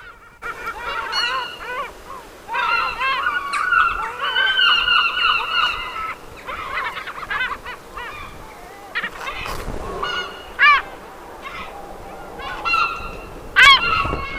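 Loud, raucous gull calls ring out in repeated bursts, harsh honking cries layered over one another, with a few sharper, higher yelps standing out near the end. No one speaks.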